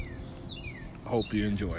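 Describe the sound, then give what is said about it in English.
Birds chirp softly in the background outdoors on a back patio, a few quick sweeping tweets, before a person begins speaking over them. “When you hear those birds in the background, you know that means that I'm recording in my back patty.”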